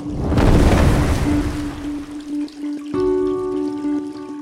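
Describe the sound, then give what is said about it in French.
Water gushes steadily from a tap into a bath, a full rushing sound with a constant low pipe hum that turns into a brighter whining drone partway through. No one speaks. “Bon, eh ben mon chéri, je te quitte parce que mon bain coule, hein”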